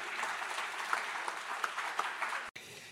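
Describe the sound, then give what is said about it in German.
An audience applauds steadily, a dense wash of many hands clapping with a few sharper claps popping out, then it briefly cuts off before resuming. “Das ist doch einen ganz großen Applaus bitte wert, wenn jemand sagt, das mache ich nicht nur einmal, sondern das mache ich auch wieder.”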